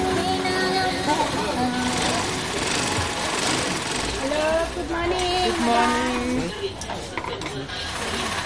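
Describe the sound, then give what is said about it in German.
Several sewing machines whir and rattle steadily in a busy space, a continuous mechanical clatter with people's voices talking over it. “Überall Nähmaschinen.”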